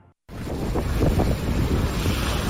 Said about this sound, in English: This is a familiar sound in Illinois. Cold snap grappling with heavy snowfall while bracing themselves for a significant winter storm.